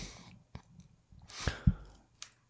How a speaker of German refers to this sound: das Knistern in, hört man übrigens. Das Knistern hier? Ja. Das höre ich hier oben. Oh, okay. Ich habe hier mit einem äh, Kabelbinder gespielt.